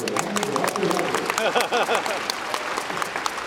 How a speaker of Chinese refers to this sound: 多一点微笑，多一点什么？ 掌声。